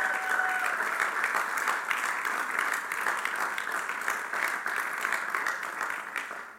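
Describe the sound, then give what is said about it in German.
A church audience applauds the worship band steadily throughout, dense overlapping claps at a fairly loud level, tapering slightly at the very end, with no one speaking over it. “Das ist, wow, äh, wirklich, äh, komm, einen Applaus für die Worship-Band.”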